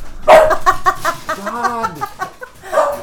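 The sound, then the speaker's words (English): A dog barks in a quick run of short, excited yelps as it runs upstairs, then lets out a drawn-out whine before one more bark; fairly loud, with no talking. “dog just ran upstairs.”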